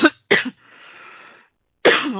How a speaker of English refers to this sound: wow, well, my body knows something. It's coughing up a little here today.